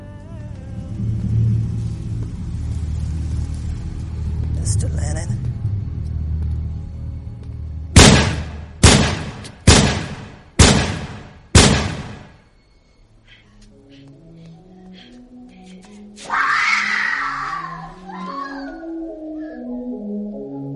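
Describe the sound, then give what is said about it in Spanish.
Five loud gunshots ring out in quick, evenly spaced succession, each with a short echoing tail, cutting through a low rumbling background before soft melodic tones follow: the five shots Mark David Chapman fired at John Lennon outside his home in New York on 8 December 1980. “Fueron cinco tiros los que acabaron con, con su vida.”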